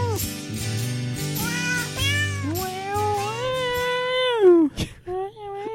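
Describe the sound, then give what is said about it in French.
A cat meows in long, wavering, off-key notes, pitch sliding up and down as if singing the carol Silent Night, over a steady low musical backing, ending with a sharp drop. “Un chat qui fausse.”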